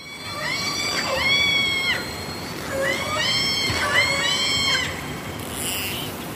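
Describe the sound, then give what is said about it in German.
Orca calls recorded underwater off Washington State: a handful of squealing, pitch-bending cries in close succession, bright and harmonic, over a steady wash of hissing water noise with no voices. “Wenn sie dann aber da sind, dann wird es sich so anhören.”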